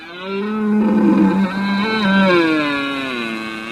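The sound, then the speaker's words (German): A stag's deep, drawn-out roar during the mating season fills nearly four seconds, loud, with a rough, resonant tone whose pitch wavers and sags slightly toward the end. No one speaks. “Vom röhrenden Hirsch über den ratschlagenden Pfau bis zum quakenden Frosch.”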